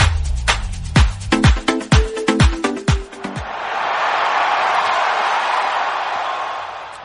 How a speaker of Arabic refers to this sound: شغلنا لكم صوت الجمهور عشان تعيشوا اجواء الملعب